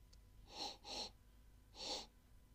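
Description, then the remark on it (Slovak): A voice imitates a dragon sniffing and snorting in a Slovak fairy tale: two quick breathy sniffs in succession, a pause, then one more forceful snorting blow, fairly loud with no talking. “Drak hneď začal ňuchať, smrkať a fúkať.”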